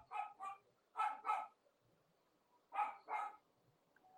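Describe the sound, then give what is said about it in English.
Dogs bark in quick doubled pairs, six sharp woofs in three bursts separated by short pauses, clear against a quiet background with no talking. “But and even my dogs see, agree.”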